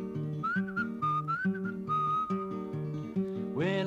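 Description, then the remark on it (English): A whistled bird call, a high, warbling line repeated in short chirping phrases over steady plucked-string accompaniment, ending with a quick upward sweep. “the dog went ruff, ruff, the cat went meow, and the bird went.”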